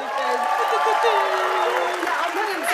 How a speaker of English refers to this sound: Excuse the applause, please, everyone.